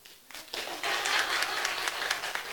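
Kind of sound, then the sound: crowd, audience clapping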